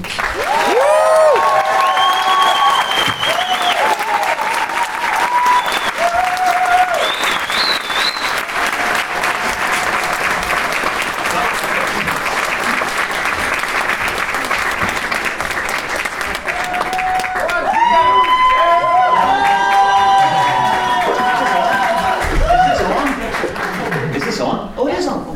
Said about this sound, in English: And can you please give the first big tone setting round of applause for